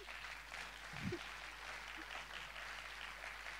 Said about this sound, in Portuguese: Pode aplaudir mesmo, amém.